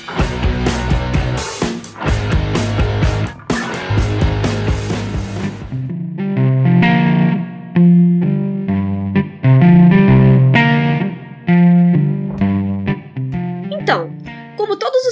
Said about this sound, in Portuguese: E depois da vinheta tem Sinapsecast para vocês.